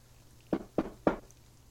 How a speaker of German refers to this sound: Also klopf ich. Ja? Kann ich klopfen? Ja, ja, klopf doch mal.